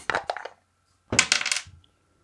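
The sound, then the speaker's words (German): Dice are rolled on a hard table during a fantasy role-playing game. They clatter in two short bursts: a quick rattle, a brief pause, then a longer tumbling roll that settles. Fairly loud, with no voices. “Das ist mir nicht gelungen, weil ich den falschen Würfel genommen habe.”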